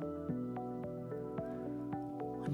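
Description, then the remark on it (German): A clear brook trickles and splashes down a small slope like a little waterfall, with bright dripping plinks over a steady, humming tonal backdrop; moderately loud, with no voices. “kommt plötzlich zu einem kleinen Abhang und wie ein kleiner Wasserfall plätschert er diesen Abhang hinunter.”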